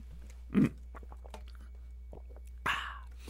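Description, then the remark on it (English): Drinking noises as someone chugs the rest of a bottle of water: a low, thick gulp, a quiet pause with faint mouth clicks, then a second swallow trailing into a breathy exhale. “I don't normally make so much noise when I drink water, but you know, it's an audio podcast.”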